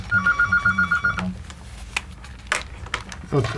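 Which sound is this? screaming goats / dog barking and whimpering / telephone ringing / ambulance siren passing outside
telephone ringing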